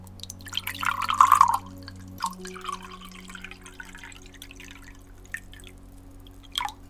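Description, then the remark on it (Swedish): Water is poured into a glass in one short burst of bubbling and trickling, followed by a few soft drips and a faint clink. “Så eh, jag häller upp ett glas till dig här.”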